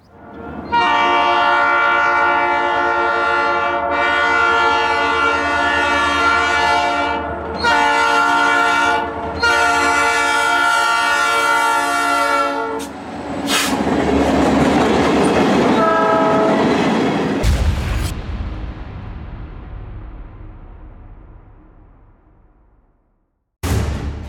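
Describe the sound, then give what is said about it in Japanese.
The horn of the freight train called 'the Beast' (野獣) blasts in several long, loud harmonic bursts with short gaps, then gives way to the heavy rumble and clatter of the train rolling by before it fades out. “もうすぐこの辺りを通るんだ野獣を見に行こう”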